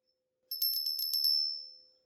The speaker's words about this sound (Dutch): Hé, hey, een belletje.